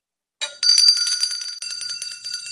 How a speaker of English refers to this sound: Well, that is the smallest bell I have ever seen. Oh, that's my little cowbell.